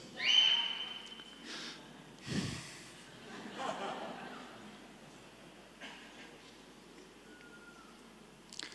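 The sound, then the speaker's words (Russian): A short, steady whistle from a person sounds near the start, followed by breathy snorts, a thump and low background noise, with a faint second whistle-like tone toward the end. “Этот благословенный свист.”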